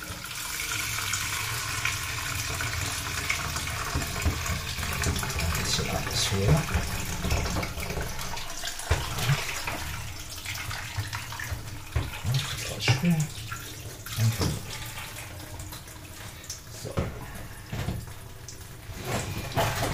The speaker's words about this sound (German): Dabei kann ich noch meine Brotdose ausspülen.